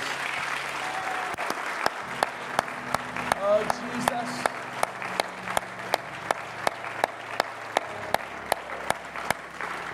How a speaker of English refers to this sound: And everyone shout in Jesus' name. Let's give the Lord Jesus a great big hand clap of praise.